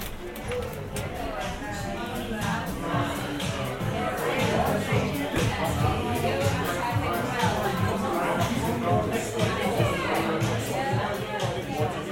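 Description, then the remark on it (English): Noisy crowd chatter fills a busy pub, many overlapping voices blending into a steady, loud babble that continues without pause from start to finish. “and it's way too noisy, and the music is shocking.”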